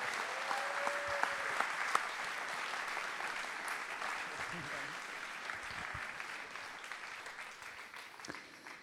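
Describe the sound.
Sustained audience applause fills the whole stretch, a dense steady wash of clapping that slowly tapers toward the end, with a few voices murmuring and calling out beneath it.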